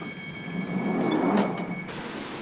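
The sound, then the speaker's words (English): Northern Line underground train (via Bank, terminating at Edgware) doors slide shut amid steady rumbling platform noise; a whooshing swell builds and fades, then a high whine abruptly cuts out as the doors close. No one speaks. “Please mind closed doors.”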